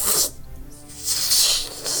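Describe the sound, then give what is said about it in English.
A voice imitates the hiss of a burning fuse: a steady, breathy, high-pitched hissing that drops out briefly, then resumes and sputters on to the end. “and almost like a fuse.”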